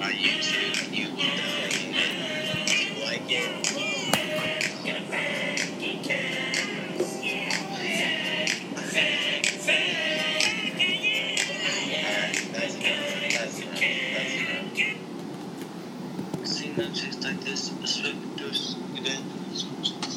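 An explicit rap track plays back at steady volume for about twenty seconds, with a dense beat and rapid vocals running continuously, without any pause.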